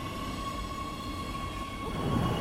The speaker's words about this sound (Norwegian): Nå skal vi skru tida litt tilbake, til et eh, T-banestopp på Oslo S en litt hustrig aprilmorgen.